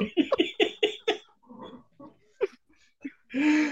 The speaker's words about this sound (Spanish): Ay, sí, qué bien come el perro. Qué bien come el perro.